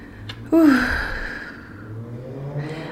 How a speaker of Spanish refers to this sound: uy, una moto.